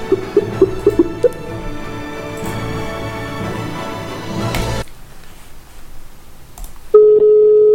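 A phone number is dialed, with a quick run of short keypad beeps over a busy, humming background, then a steady electronic line tone starts near the end.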